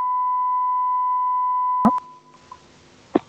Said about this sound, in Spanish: Pitido.